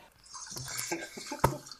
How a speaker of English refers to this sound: Um, that is wine. Thank you very fucking much. Okay, you can't pour wine while we record either, then. You just have to tell me that you're doing it and I'll stop for a minute.